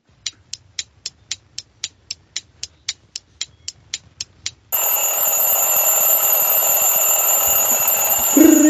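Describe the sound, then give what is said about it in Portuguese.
An alarm clock rings to mark that time is up for answering a quiz question, in a rapid series of about fifteen sharp, evenly spaced beeps, then gives way to a loud, sustained electronic buzzing ring that continues steadily to the end. “acabou o tempo, pessoal.”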